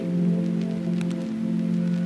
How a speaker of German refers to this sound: Wir stehen da, ganz ruhig, und schauen hoch in die Bäume. Vögel und das Rauschen der Blätter. Und irgendwo hier ist Wasser. Da bin ich mir ganz sicher.